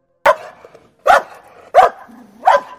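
A dog, Moti, barks four times on a footpath in the dark, at a steady, unhurried pace, each bark sharp and loud, with brief quiet gaps between and no voices.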